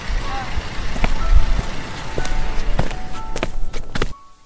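Footsteps walking along the side of a road, a handful of irregular scuffing steps over a steady outdoor hum with faint tonal traffic noise, ending abruptly in near silence.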